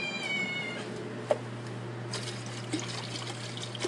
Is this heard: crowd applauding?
no